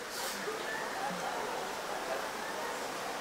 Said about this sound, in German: Nicht auf den Regen achten, sondern hier bleiben.